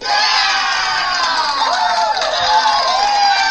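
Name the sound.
applause and cheering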